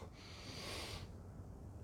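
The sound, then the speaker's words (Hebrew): A single deep breath drawn in during a guided breathing exercise, an airy, hissing inhale lasting about a second, soft, followed by quiet room tone. “נושמים? כמו אקורדיון שנפתח.”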